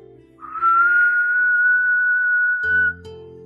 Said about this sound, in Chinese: 他不仅守护所有孩子的睡眠，还会在老师要走进教室时急促的吹响哨子。